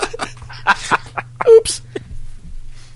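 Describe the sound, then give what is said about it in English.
A short, loud burp breaks into someone's speech, followed by a brief burst of laughter and a few quieter breathy sounds. “I am currently level 80 in destruction and 92 in, and a burp in conjuration.”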